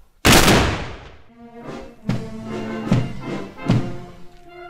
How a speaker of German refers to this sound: Böllerschüsse, abgegeben durch die Sipplinger Bürgerwehr, das gehöre zur Tradition der Blumenteppichprozession seit Jahrzehnten mit dazu, heißt es bei der Gemeinde.